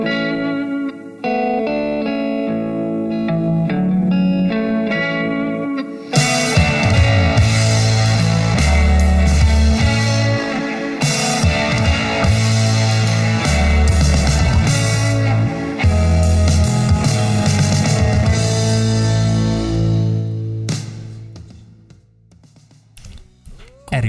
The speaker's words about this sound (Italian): Ma penso sia arrivato il momento di passare a un'altra canzone per poi lasciarci al nostro salotto.